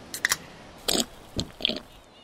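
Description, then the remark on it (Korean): Close, crisp crunching and chewing of food in several short bursts, with brief pauses between bites and no talking. “음, 맛 좋다.”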